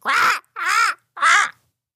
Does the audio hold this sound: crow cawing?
yes